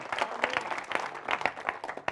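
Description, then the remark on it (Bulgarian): A crowd at Church Awakening (Църква Пробуждане) breaks into applause for people who have given their lives to Jesus Christ, many hands clapping in a dense, crackling patter with sharper individual claps popping out irregularly, fairly steady in loudness throughout. “Да, може да ръкопляскате за това.”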